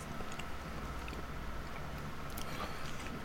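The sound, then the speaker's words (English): Munching on a crisp round caramel waffle biscuit about 20 centimeters across with a honeycomb texture: steady, quiet crunching and chewing with occasional sharper crackles, heard alone without any talking. “What are you thinking you munch away on that?”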